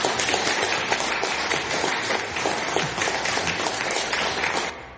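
Sustained applause from a crowd, dense overlapping clapping at steady loudness that fades out at the very end.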